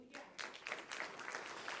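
A church audience bursts into sustained, loud applause for the Lord, dense clapping swelling quickly and holding steady, with a few scattered voices mixed into the crowd noise.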